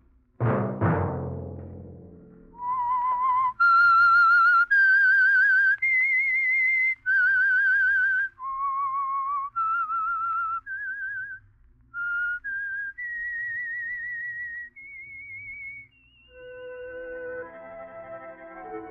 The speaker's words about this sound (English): Let that whistle be your signal for the Signal Oil program, The Whistler, each Monday at 9.